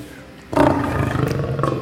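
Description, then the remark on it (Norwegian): A male lion in Norway, weighing 243 kilograms, roars: after a short quiet moment, a deep, rough, loud roar bursts in and carries on steadily to the end, with a slight throbbing pulse. No voices are heard. “Det er ei hannløve i Norge, og hun ligger her.”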